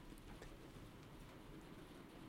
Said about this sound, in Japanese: 雨。急に雨降ってきましたね。ちょっと音入っちゃったら申し訳ございません。